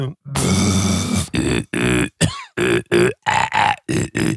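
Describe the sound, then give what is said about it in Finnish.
A human voice makes a long, rough growling rasp with the tongue rolled back, then a string of short guttural grunts and croaks in quick bursts, fairly loud, with no words spoken. “Kun laittaa kielen rullalle ja örisee.”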